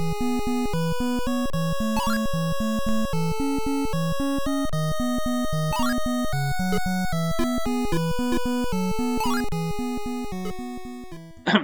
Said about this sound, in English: Yeah, and this is exactly what you find in Antarctic Adventure with the main background theme. The first pulse wave channel isn't used in the music and instead only shows up for sound effects like jumping and crashing into things.